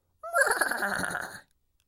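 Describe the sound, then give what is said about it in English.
A horse neighs once, a loud whinny lasting just over a second with a shaky, quavering tone that cuts off sharply, with no talking. “There was a dog, and there was a horse,”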